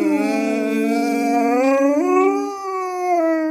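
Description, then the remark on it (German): A dog named Rocky howls in one long, sustained tone that wavers and rises partway through, sounding like it is singing along. The howl is loud and continuous with no talking over it. “Kleines Ständchen von Rocky, ja.”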